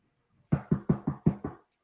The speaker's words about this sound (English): There it is. There's your knock on wood. There you go. And that's all you need. All you need is knocks on wood.